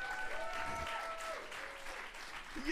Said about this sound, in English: that deserves more applause than that. That's a great thing to have accomplished, guys.